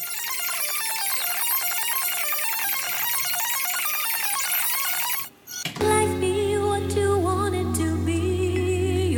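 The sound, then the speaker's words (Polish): A cassette deck's rewind cue: rapid, high-pitched warbling chirps of tape sped up in reverse. After a brief gap come steadier, lower musical tones with a sustained hum, and no voices. “Czyli słyszymy tak jak w RSB X404 na podglądzie przywijania.”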